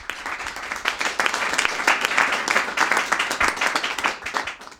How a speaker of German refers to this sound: Einen Applaus.